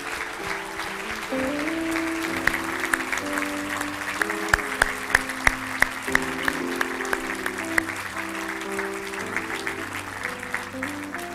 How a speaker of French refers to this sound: Donc, si vous êtes père, est-ce que vous pouvez vous lever? Peu importe la saison, que vous soyez rendu un beau-père, un grand-père. Est-ce qu'on peut les applaudir, s'il vous plaît?